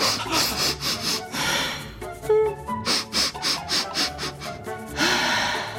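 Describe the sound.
A voice imitates the breathing pattern of crying: a series of short, sharp, rhythmic inhalations in quick bursts, broken by an occasional longer exhale, breathy and fairly loud with no words spoken.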